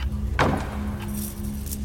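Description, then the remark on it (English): A single heavy door slams shut in a domed atrium, a sharp thud that rings briefly before fading into a steady low hum and faint background rumble. “I slammed each door and fixed them with links of chain and twine to the pillars that supported the domed atrium.”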